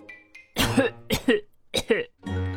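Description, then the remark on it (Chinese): A voice imitates a hippo coughing after swallowing a parcel whole: three heavy, rough, voiced cough bursts in a row, followed by a lower drawn-out throaty grunt, fairly loud with no other talk. “包裹被河马一口吞了，河马开始咳嗽，”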